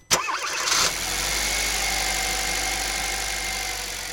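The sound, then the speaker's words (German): A combustion-engine car starts up: a brief sharp crank, a whirring churn for under a second, then the engine catches and settles into a steady rumbling idle. No one speaks. “Das ist natürlich ein Auto mit Verbrennungsmotor.”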